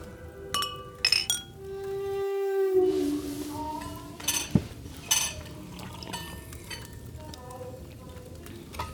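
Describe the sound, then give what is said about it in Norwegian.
Several drinking glasses clink together in a toast, a scatter of bright, ringing taps, with murmured voices and table sounds in the background. “Eh, eh, la oss løfte glassene, dere. Ja. Vi skal skåle.”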